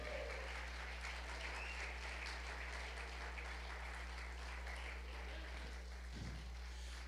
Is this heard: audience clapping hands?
yes